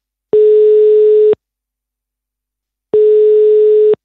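A telephone ringing tone sounds as a call is placed to Bjørn Brandenborg, legal affairs spokesperson for the Danish Social Democrats: two steady, moderately loud tone bursts about a second long each, separated by a longer pause of silence, with no talking.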